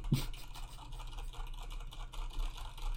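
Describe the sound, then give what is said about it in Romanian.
Rapid, continuous clatter of typing on a computer keyboard, with keystrokes running together into a busy, steady patter and no one speaking. “Se aude clar cum tastez, de ce nu apare nimica?”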